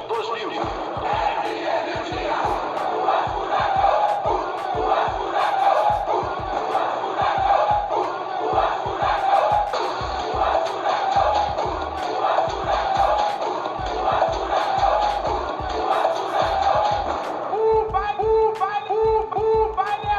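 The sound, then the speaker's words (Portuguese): A loud Brazilian funk party from one of the first funk sound crews in Brazil, with a pounding, steady bass beat under a dense, shouting crowd, continuous throughout, shifting near the end to choppier, more staccato music. “Vamos ouvir um pouquinho do som da …”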